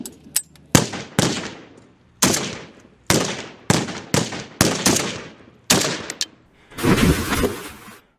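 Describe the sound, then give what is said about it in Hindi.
Loud assault rifle gunfire in Pulwama, Kashmir, as soldiers fire six shots at a terrorist: a string of sharp, echoing shots fired at irregular intervals, ending in a sustained rapid burst. No voices are heard. “वो टेररिस्ट अब भी उन पर फायर कर रहा था लेकिन दोनों ने उस टेरिस के रीलोड करने तक का वेट किया और जैसे ही मौका आया कैप्टन दंगी और उनके साथी ने अपनी टा ट्वेंटी वन असॉल्ट राइफल से छह गोलियां दाग दी”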